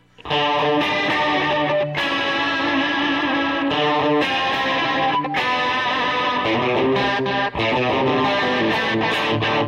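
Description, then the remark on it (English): An electric guitar plays steady, sustained chords through a chorus pedal, the shimmering tone loud, thick and slightly distorted, with chord changes every second or two and no talking. “Oh, it's turn on the, the chorus for that.”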